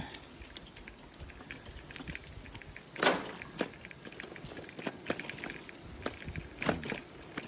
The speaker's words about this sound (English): to walk through the rubble here to get back out on the front street. taking a nail through the slipper.